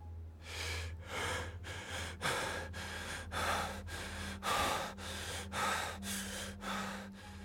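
Rapid, laboured gasping breaths of a man sitting in a corridor trying to breathe, about a dozen in a quick steady rhythm, fairly loud, with a faint low hum beneath and no talking.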